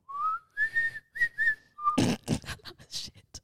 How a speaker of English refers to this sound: I, just, I tried to whistle. I couldn't whistle.